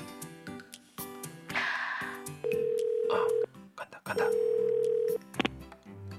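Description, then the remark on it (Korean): A telephone ringback tone sounds twice, each a steady, fairly loud one-second burst with a pause between, over faint background noise and brief clicks, as a man phones his mother-in-law. “그러면 어, 내가 장모님한테 전화해 볼게.”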